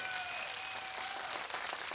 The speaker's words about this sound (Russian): А как-то вы очень тихо хлопаете.